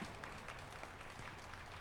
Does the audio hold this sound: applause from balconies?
yes